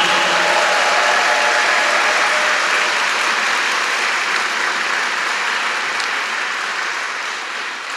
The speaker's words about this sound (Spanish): Démosle un fuerte aplauso al Señor Jesús en esta mañana. Y ahora sí vamos a darle un aplauso fuerte como si usted estuviera feliz en esta mañana.